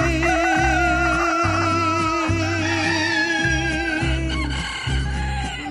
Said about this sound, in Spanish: A ver si con el gallo se despierta. Kikirikiki.